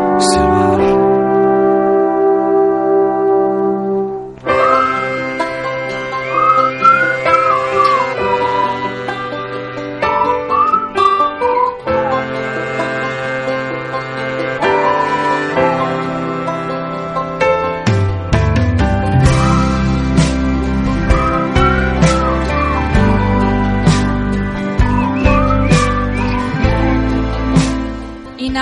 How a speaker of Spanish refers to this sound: inevitable no ponernos a silbar después de escuchar …